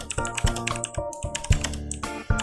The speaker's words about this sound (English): All right. So this is how all the episodes start. It's just the sound of typing.